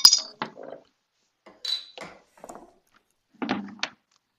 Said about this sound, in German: dann machen wir es ja auch gleich mal auf die Flasche, ja. um mal zu gucken, wie das Bier schmeckt.